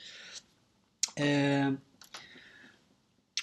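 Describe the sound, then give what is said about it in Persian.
Mouth clicks and a quick swallow as someone sips a drink to refresh their throat, followed by a sustained voiced 'ahh' of relief, with a few more soft clicks afterward. “یه قلوب گلوی تازه کنم”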